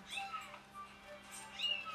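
A cat meows twice, a short rising-and-falling call near the start and another toward the end, both fairly soft over a faint steady hum.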